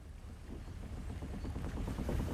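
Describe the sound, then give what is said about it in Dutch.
A steady low rumble of a boat engine on a river with faint watery wash over it, continuous, no voices present. “Totdat ik eh, in eh, vorig jaar, november 2010, weer op de boot stond.”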